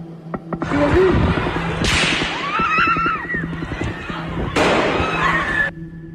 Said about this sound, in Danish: Det, du lytter til, er lyden af skyderiet i Fields den 3. juli 2022.